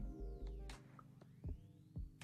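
A low, steady engine throb rumbles throughout with a rhythmic pulsing, punctuated by a few sharp clicks and knocks, from a truck idling with its engine running while waiting beside a house, some ten to twenty metres diagonally from its front.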